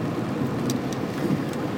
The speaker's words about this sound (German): Äh, ansonsten regnet es hier noch nach wie vor.